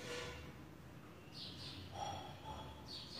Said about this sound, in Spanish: Sí, me encanta, se escuchan esos pajaritos. Es increíble porque hasta hace un rato se escuchaban ambulancias, sirenas, autos.